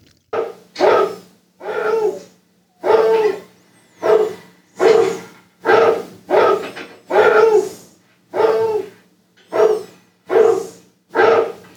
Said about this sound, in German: Erstmal nach den Kindern gucken und die Hunde, die bellen einfach mal weiter mitten in der Nacht. Das hören auch die Kinder nicht.